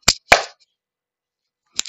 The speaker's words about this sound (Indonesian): Sekarang kita tepuk tangan yang sebentar aja.